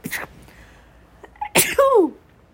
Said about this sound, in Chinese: 好，打完喷嚏回来了，我们再继续哦。